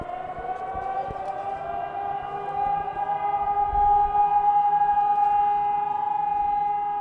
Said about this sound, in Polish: Trzyminutowy dźwięk syreny alarmowej i minuta ciszy. Tak cała stolica czci tych, którzy 76 lat temu stanęli do walki z wojskami III Rzeszy.